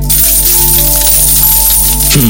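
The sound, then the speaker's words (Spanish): Silver coins clink and jingle together in a steady shimmer for a couple of seconds, fairly loud, with no voices, as the Philistine leaders offer Delilah eleven hundred pieces of silver each. “Dalila, cada uno de nosotros te dará mil cien piezas de plata si descubres qué hace tan fuerte a Sansón.”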